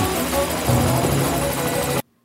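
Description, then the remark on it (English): A loud, steady helicopter rotor drone with a throbbing engine hum from a video game, filling the whole clip before cutting off abruptly into silence. “Uh, hold on, it's a helicoptery thing. It's a oh, helicopters.”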